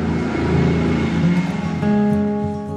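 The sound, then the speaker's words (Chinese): A car engine drones with a steady tonal hum, then shifts up in pitch as the vehicle pulls away, sounding on its own with no voices. “温妮变出来的那只蛤蟆自己开着车去冒险了。”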